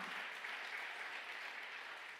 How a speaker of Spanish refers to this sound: Denle un aplauso fuerte. Ay, denle el aplauso fuerte a papá.